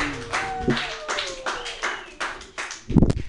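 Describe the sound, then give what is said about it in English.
A comedy show audience applauds the next comedian, Jack Ferguson, steadily for a few seconds, dense overlapping claps with scattered cheers and whoops rising over them, swelling louder toward the end. “Clap your hands wildly for Jack Ferguson.”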